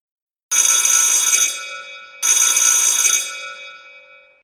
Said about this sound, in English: An insanely loud bell went off.